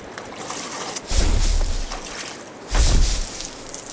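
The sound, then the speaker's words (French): Water of the Lena River laps and sloshes in two broad surges, each swelling for about a second with a low rumbling wash beneath a brighter splashy hiss, over a steady soft background of moving water. “Suivons le clapotis de l'eau.”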